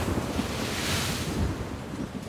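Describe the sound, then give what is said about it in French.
Heavy waves raised by a terrible storm at sea surge and crash continuously while strong wind roars and buffets, a loud, dense wash of water and gusts with no voices. “Un jour, une terrible tempête souleva de telles vagues que la mer sembla se vider”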